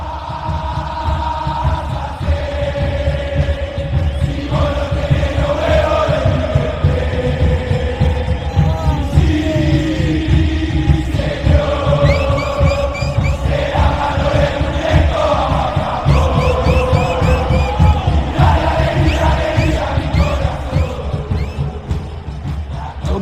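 A large stadium crowd of River Plate football supporters, the barra Los Borrachos del Tablón, chants and sings in unison, loud and sustained, with a steady pounding drum rhythm underneath and rising, falling melodic phrases repeated over twenty-odd seconds.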